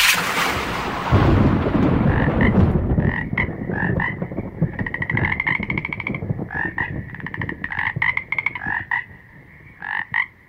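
A sound effect: a low rumbling burst opens, then a chorus of frogs croaks in quick, overlapping bursts, loud, continuing steadily to the end with no voices.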